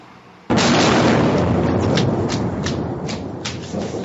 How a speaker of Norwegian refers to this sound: Eksplosjonen var så kraftig og effekten så dødelig at det som skjedde på ringveien i Kasasis distrikt i utkanten av den syriske hovedstaden Damaskus torsdag morgen, må betegnes som et slags vendepunkt i den syriske borgerkrigen.